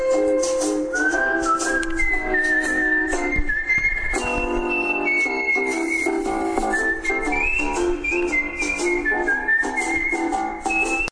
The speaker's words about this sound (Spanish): también una canción que pertenece a una película del mismo nombre